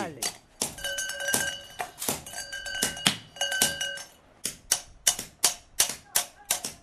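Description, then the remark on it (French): A man sitting cross-legged strikes a golden bell, made of recycled metal, with a hammer on an anvil in a quick, steady series of sharp blows; early strikes leave a bright metallic ringing, while later ones sound drier and shorter. “Assis en tailleur, penché sur l'enclume où il frappe”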